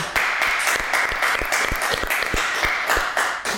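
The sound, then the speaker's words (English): Steady audience applause for Luis Guzman, dense overlapping claps with a few sharper individual claps standing out, sustained at an even, fairly loud level without any talking. “Everybody give it up for Luis Guzman.”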